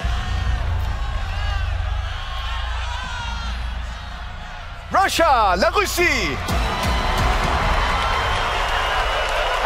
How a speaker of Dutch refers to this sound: En uit protest daartegen klonk er een oorverdovend boegeroep in de zaal toen Rusland zich kwalificeerde voor de finales.